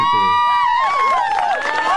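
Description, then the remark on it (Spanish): A loud, brief crowd applause sound effect, played to welcome a co-host at the start of the Motorrock show, with cheering voices and rising, falling whistles over a clapping wash, lasting about two seconds with no one speaking. “Acá te mando unos aplausos para recibirte.”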